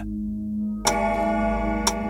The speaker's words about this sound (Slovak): Keď hodiny odbijú polnoc, Michael sa náhle preberie.